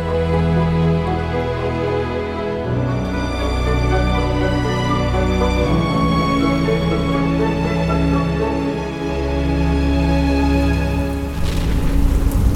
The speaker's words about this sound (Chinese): 直到雷雨交加的某个晚上，雨下得很大很大，呃，这个雷也打得特别的大声呢。